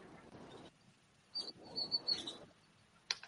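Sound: birds chirping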